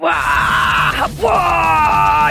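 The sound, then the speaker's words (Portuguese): Harsh, guttural death metal growling, loud, held almost continuously for a couple of seconds with a brief break midway, over a dense, pounding low end; death metal played in a car while driving home from work. “Espancando o volante antes de chegar em casa, relaxando, tocando meu death metal tranquila.”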